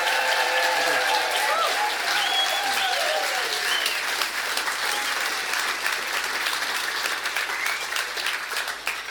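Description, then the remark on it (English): An audience applauds steadily for about nine seconds, welcoming author Val McDermid to the stage at an in-conversation event: a dense, even wash of clapping that stays loud throughout, with a few rising and falling cheers and whoops threaded through it. “Please, uh, you've, you've, already applauded her, but please give her a huge rousing welcome to the stage this evening.”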